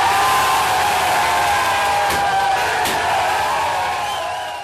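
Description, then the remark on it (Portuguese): A loud, dense roar of many voices shouting and cheering at once, steady throughout with a couple of sharp bursts standing out, then easing slightly toward the end, greeting the return of politician Iris Rezende on 5 August 2016 at his office on T9 in Goiânia. “Pois é, uma gritaria, né?”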